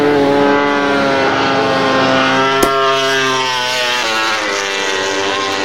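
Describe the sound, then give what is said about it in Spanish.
A Honda MotoGP racing motorcycle, Bradl's bike, roars loudly and steadily with a rich, buzzing harmonic tone as it passes through a corner, its pitch sagging slightly toward the end. A single sharp click cuts in midway. “Bueno, paso por curva de onda, la onda de Marini, bueno, de Bradal. Ahí está el, ronquido de la onda.”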